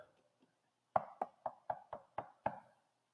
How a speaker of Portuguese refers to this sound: O maligno vai bater na porta.